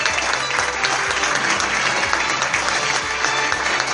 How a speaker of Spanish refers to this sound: Fuerte el aplauso para jugar.